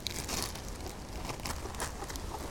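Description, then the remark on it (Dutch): Busy crinkling and rustling of a thin plastic bag as two freshly cut plant cuttings are pushed inside, with irregular crackly bursts continuing throughout and no talking. “Nu heb ik er twee afgesneden en ik ga zo snel als dat ik kan, ga ik deze stekjes in een plastic zakje doen om te voorkomen dat er te veel verdampt.”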